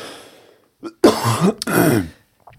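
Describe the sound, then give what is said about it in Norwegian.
Two loud, rough coughing bursts, one right after the other with a short catch of breath between, preceded by a faint breath and followed by quiet. “Host, hosting i dag.”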